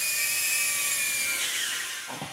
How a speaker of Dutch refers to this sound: dit is eigenlijk een zichzelf besturende drone die jou kan filmen, fotograferen